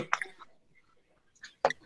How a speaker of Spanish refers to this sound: Bueno, déjame echar un traguito de agua.